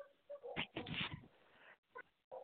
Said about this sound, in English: Yeah, uh, the doggies are barking now.